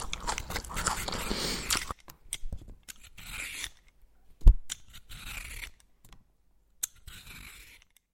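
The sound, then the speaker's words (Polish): A crisp carrot is bitten and crunched: a long, dense run of crackly chewing, then a sharp snap and several shorter crunchy bites separated by brief pauses. “Sounds of Malchus krucha i chrupiąca. Sounds of marchew.”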